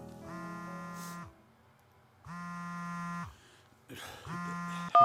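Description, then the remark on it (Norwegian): A telephone rings at night three times with a buzzy, harmonic electronic tone, each ring lasting about a second with short pauses between, followed by a sharp click as the last ring cuts off. “Ikke før en mørk natt, da telefonen min plutselig ringte, og en dyster ung kvinne med en mørk sjel møtte meg i andre enden.”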